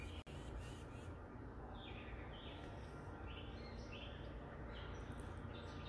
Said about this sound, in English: Ah, another early morning with the birds.